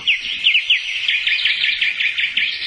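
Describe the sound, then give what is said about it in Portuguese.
Small birds in a garden chirp rapidly and continuously, a bright high-pitched twittering of many quick repeated notes, with no voices. “Era segunda-feira eu tratava dos passarinhos em meu canto no jardim e continuava com meus pensamentos”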